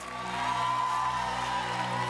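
A church audience shouts and cheers in praise in a steady, dense wash of crowd noise over sustained instrumental tones, the roar holding at an even level without pause.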